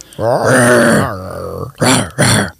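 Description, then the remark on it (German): A voice imitates a dinosaur growl: one long, loud, rough roar with wavering pitch, followed by two shorter, breathy growling bursts. No other talking is heard. “Genau so machen Dinos.”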